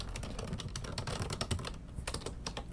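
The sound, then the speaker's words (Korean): Rapid, continuous typing on a computer keyboard as a columnist writes a weekly relationship-advice column, with dense irregular key clicks and occasional heavier strokes, no voices present. “그래가지고 이게 연애 고민을 상담, 연애 고민을 들어주는 어떤 식당을 운영하는 연애 칼럼니스트 이런 컨셉으로 제가 지금 칼럼을 쓰고 있어가지고 그거 쓰고 있어”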